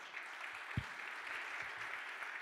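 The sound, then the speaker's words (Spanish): An audience at a sermon claps steadily for the Lord, a dense wash of many hands applauding together at moderate volume, sustained without pause and with a few low thumps mixed in. “¿Cuánto le dan un aplauso fuerte al Señor?”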